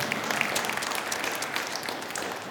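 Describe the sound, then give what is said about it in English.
A crowd applauds steadily, many hands clapping at once in a dense, even wash of sound that holds at a consistent level throughout. “You can applaud about not having a mortgage, too.”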